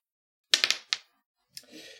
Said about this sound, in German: ich hätte gerne von äh, Barbara einen Würfelwurf, ob das Nähen klappt